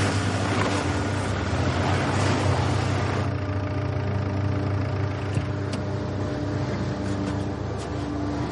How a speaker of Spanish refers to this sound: coche de Andre llega a comisaría.